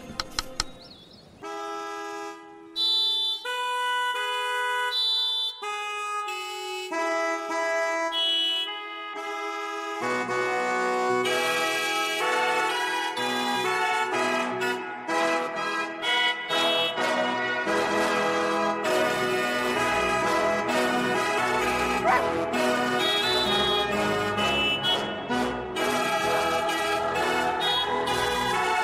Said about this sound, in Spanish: en un anuncio de la mutua madrileña, el cual aparece un director de orquesta, rodeado en vez de por músicos, por coches y motos, los cuales interpretan con su claxon esta obra clásica que van a reconocer al instante.